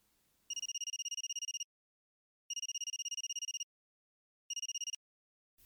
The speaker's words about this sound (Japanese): 取引先の社長とゴルフをしている時であった急に携帯電話が鳴り響いた